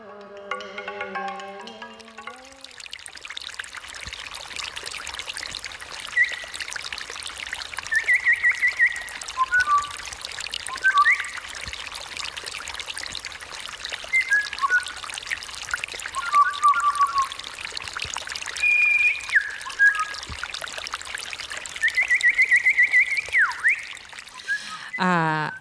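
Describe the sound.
Someone imitates birdsong with short whistled chirps and trills, scattered irregularly over a steady rushing, stream-like background that runs nearly the whole time after a brief musical opening.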